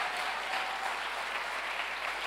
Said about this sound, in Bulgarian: О, ако ръкопляскаш, ръкопляскай, като че ръкопляскаш на Господ.